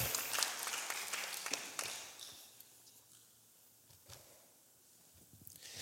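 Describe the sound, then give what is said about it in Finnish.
Audience applause for the actors: dense clapping that is loudest at first, thins out midway with scattered claps, then briefly swells again before fading. “Antakaa aplodit meidän näyttelijöille.”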